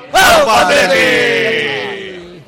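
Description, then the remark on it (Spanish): A group of voices lets out one long, loud, sustained rallying cry together, starting abruptly and slowly fading over a couple of seconds. “Vamos a cantar el grito sagrado.”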